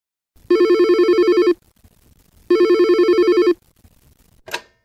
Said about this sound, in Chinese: 两分钟后，电话来了。